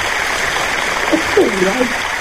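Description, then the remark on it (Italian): Steady applause for a couple whose 24th wedding anniversary is the next day, December 30, a dense even wash of clapping that holds for the whole stretch, with a brief voice rising over it partway through. “Applausi, applausi.”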